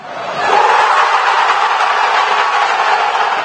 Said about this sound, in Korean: 6만 관중이 함께하는 축구경기장